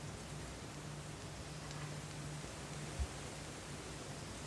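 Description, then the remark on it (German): A soft, steady hiss of rain falling continuously at a low, even level, with no voices and only a faint low hum beneath the wash. “Lass es mit dem Wasser hinforttragen.”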